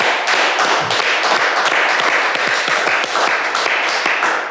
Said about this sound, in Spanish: Vamos a darle un aplauso a mi compa